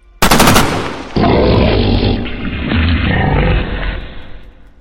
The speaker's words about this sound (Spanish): La sorprendente ruidosa ráfaga puso fin al silencio que había reinado en la biblioteca, y después de esta se oyó un chillido aterrador.